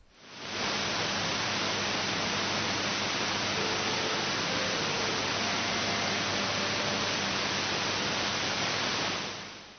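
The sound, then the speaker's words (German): Steady, dense radio static hisses for the whole stretch, with a faint station identifier signal barely emerging from deep within the noise, as recorded at the receiving location of a transmitted signal. No one speaks. “man hört im Rauschen ganz tief hinten die Stationskennung durch.”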